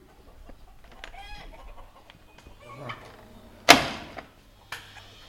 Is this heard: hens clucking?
yes